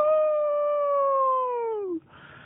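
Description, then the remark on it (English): A single drawn-out wolf howl imitated by a human voice for the North Carolina State football team, holding a steady pitch for about two seconds before sliding downward and cutting off. Loud, with no other talking. “The is howling to a 5-0 start.”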